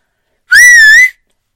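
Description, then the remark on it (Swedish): A single loud, piercing two-finger whistle rings out for about half a second, steady and shrill with a slight wavering pitch, standing alone against silence. “busvisslade högt”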